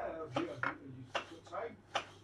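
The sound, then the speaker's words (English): A knife chopping a mushroom for a pizza on a board: about five soft, irregular thuds with brief crisp edges, spaced roughly half a second apart, fairly quiet overall. “yeah, just chopping one up.”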